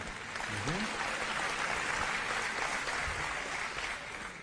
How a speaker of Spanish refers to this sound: ¿Escuchó los aplausos del público? Sí. Es que debe estar grabado en vivo.